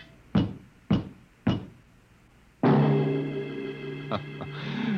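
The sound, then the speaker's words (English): Three loud, evenly spaced knocks on a door ring out, then a sudden sustained, droning blare swells in and holds to the end. “There was a knock on the door.”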